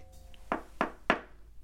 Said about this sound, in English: He seems to hesitate, as if conflicted over his decision to approach the two dames on the other side of the door. He enters the room after a polite knock.